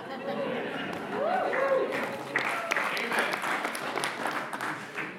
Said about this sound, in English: Okay, that, everybody that clapped, that was mean.